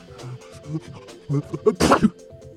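A giant rhino sneeze: a few snorting, wheezy intakes build up before one loud, explosive blast near the end, followed by a short snuffle. No speech.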